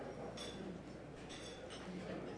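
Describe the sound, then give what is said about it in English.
Several light glass clinks ring out at scattered moments over a busy room's murmur of voices, as a crowd at a Canadian Club lunch rises and touches glasses together in a toast to Canada. “Now, before we begin to eat, uh, ladies and gentlemen, if you would, please rise as you're able and join us in a toast to Canada.”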